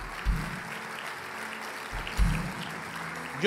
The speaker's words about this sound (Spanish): ¿O no te parece increíble que tú estés sentado ahí en la silla donde estás y hasta alabando y aplaudiendo?